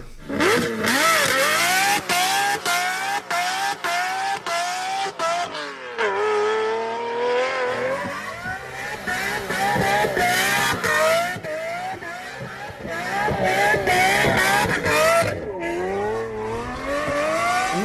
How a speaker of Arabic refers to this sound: مارشلاجو مارشلاجو اسمعوا التنفس الطبيعي وسلم لي على تيربو سوبر بعطيكم فاصل مارشلاجو شوي تنفس طبيعي ابو الفي 12 هذا الصوت بعطيك الحنان كله اسمع